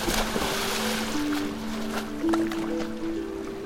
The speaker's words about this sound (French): Dans la nuit, une pirogue glisse sur le sable.